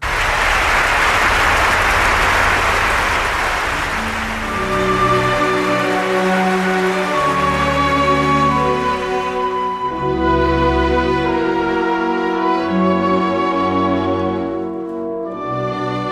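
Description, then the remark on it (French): Dense, loud audience applause at the premiere of Rudolf Nureyev's staging of La Bayadère at the Paris Opera fills the opening seconds, then fades as sustained orchestral music rises and continues to the end. “Des applaudissements lors de la première de sa mise en scène de la Bayadère à l'Opéra de Paris.”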